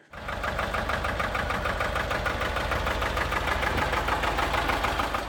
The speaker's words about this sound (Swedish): Rätt svar. Det var alltså en encylindrig Porsche diesel från 1956 med den imponerande effekten 13 hästkrafter.